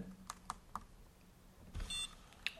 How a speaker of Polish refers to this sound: słyszeliśmy e, krótki sygnał i to oznacza, że e, ta nazwa Bluetooth została zapisana w monitorze.